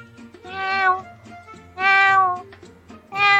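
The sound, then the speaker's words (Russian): A person imitates a cat, giving three drawn-out, rising and falling meows in a row, each loud, with short pauses between them. “Я могу сейчас помяукать так вот.”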